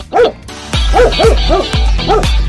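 A dog barks about five times in a steady rhythm, loud, with a deep thumping beat landing alongside each bark.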